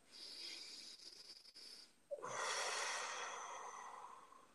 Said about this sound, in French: Alors, on va dire une respiration.